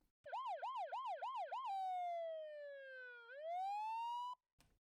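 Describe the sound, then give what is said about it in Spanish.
A loud electronic siren yelps in rapid rising-falling pulses, then switches to a long slow wail that dips and climbs again before cutting off abruptly, followed by a brief click. “Bueno, ya sabéis lo que quiere decir esta sirena, que estas reuniones, estos claustros, se tienen que mejorar.”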